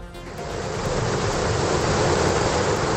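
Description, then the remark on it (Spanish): A swollen river in the Pamplona region of Spain rushes past in a loud, steady roar of churning water, a dense, unbroken wash of sound with no voices, constant throughout. “Y además del viento, el río.”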